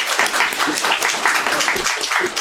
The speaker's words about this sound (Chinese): 然后，接下去我们请那个沙老师跟我们分享他关于这个话题的一些内容，好吧？我们掌声鼓励。